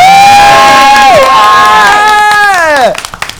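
A group cheers and shouts loudly for about three seconds, with long sustained whoops that swoop downward in pitch before the noise cuts off, as the audience makes noise for the show's host.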